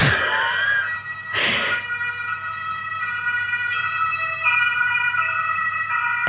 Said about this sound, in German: Jetzt fährt genau zur richtigen Zeit diese, diese, dieses Polizeiauto oder was auch immer vorbei. Ja, ich, kann, ich deswegen kann ich gerade nicht sprechen.